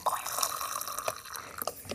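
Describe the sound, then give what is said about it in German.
Tea being dispensed from a large catering pump pot into a cup: a steady trickle of liquid with splashy, dripping bursts as the cup fills, fairly quiet and with no voices. “oh, hört ihr das? Ich gieße jetzt live Tee ein.”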